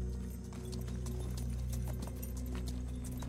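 Horse hooves clip-clop in a steady walking rhythm, a string of sharp knocks repeating every fraction of a second over a low, continuous rumbling background. No voices are heard.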